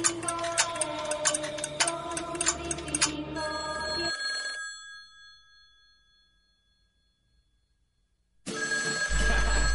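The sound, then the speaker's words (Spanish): A telephone bell rings for an incoming call, the first call of the programme, in a rapid, metallic rattle of repeated strikes, its bright tone hanging and fading out after a few seconds before a long silence, then a loud burst of sound returns. “Sí, tenemos nuestra primera llamada del programa.”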